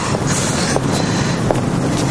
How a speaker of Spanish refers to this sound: Bueno, mi autobús.